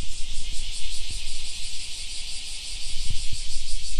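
A dense, continuous chorus of many cicadas buzzing together in the forest behind Koganemori Baseball Stadium in Haebaru Town, at midday in midsummer, a loud steady high-pitched drone with a faint pulsing texture and a few soft low thumps underneath.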